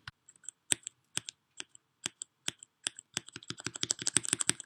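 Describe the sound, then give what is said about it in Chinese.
Typing on a mechanical keyboard with linear black switches, slightly heavy to press: soft, dull, very quiet keystrokes, spaced out at first, then speeding into a quicker, denser run of clicks toward the end. No voices. “下面是黑轴， 黑轴和青轴是机械键盘的两个极端，青轴键盘有明显的段落感，而黑轴键盘则完全没有段落感，直上直下，按键过程中受到的压力的力道差不多是一样的，稍微有一点重。另外，它的声音非常小，我们来听一下。”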